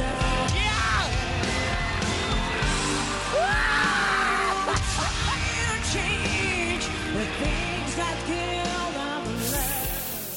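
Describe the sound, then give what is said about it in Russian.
Dima Bilan, having turned around, lets out wild, excited yells and whoops of delight over a loud sung performance with band accompaniment, his cries bursting out repeatedly above the music. “Э, дикие крики и вопли восторга, которые вы сейчас э, слышали на фоне исполнения этой песни”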